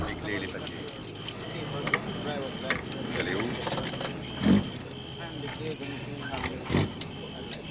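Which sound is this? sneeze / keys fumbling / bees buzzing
keys fumbling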